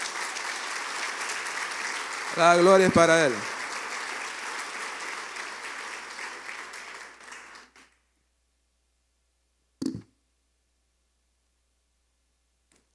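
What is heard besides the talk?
audience applause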